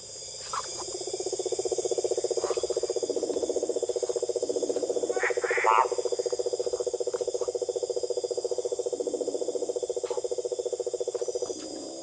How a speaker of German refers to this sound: Das Leben im Schabono spielt sich im Rhythmus der Natur ab. Mit Einbruch der Dunkelheit flackern die Feuer auf, schnell verstummen die Gespräche und die Konversation wird Fröschen und Zikaden überlassen.